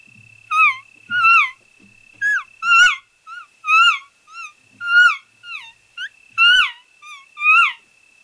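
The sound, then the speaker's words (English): An imitated elk calf call: a series of about ten short, high, squealing mews in quick uneven succession, loud, with a faint steady whistle-like tone running underneath and no talking. “Mm calf sounds because you gotta you gotta remember that kids want to play with kids so as soon as i start introducing a kid to the situation and the, and the calf sound might sound like this”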